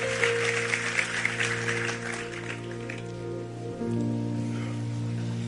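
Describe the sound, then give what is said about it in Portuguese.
A church audience, standing, claps loudly in applause for Jesus for a couple of seconds, the applause thinning and fading while steady sustained keyboard chords hum beneath, shifting to a new chord near the end. “Quem recebe o melhor aplauso a ele, vamos ficar em pé, vamos orar, vamos embora.”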